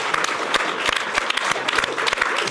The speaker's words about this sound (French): qu'on peut applaudir bien fort.